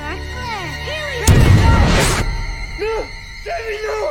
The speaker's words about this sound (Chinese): 然而在拉扯中，点燃的雷管滑落，被小女主捡起来，然后爆炸了。